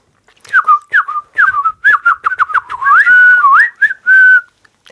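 A person whistles a quick, lively tune of short chirpy notes and upward slides, ending on a sustained held tone. Fairly loud, with no talking.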